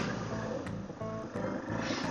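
A Yamaha XT500 motorcycle passes in the rain, its engine a deep, throbbing single-cylinder growl with pulsing beats that holds steady and fairly loud for about two seconds, with no voices.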